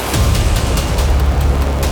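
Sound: hand grenade explosion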